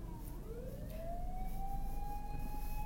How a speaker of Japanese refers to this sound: はい、消防車はどちらに行くのかしら向こうですね。はい、ということでね大丈夫でした。はい 避けなきゃいけないかと思ったけど大丈夫でした。